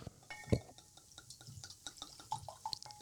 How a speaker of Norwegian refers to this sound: Eh, Museum Reserva 2019. Jeg får strekke meg over til deg, så du får litt i glasset